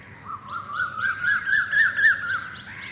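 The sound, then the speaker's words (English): Birds chirp and twitter in a steady, overlapping stream of bright, quick calls in a moringa tree outside a window, with a soft low rumble of outdoor background noise underneath and no voices. “The birds are returning to the moringa tree outside my window.”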